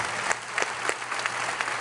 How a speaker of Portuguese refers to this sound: Dá uma salva de palmas bem gostosa aí para Jesus.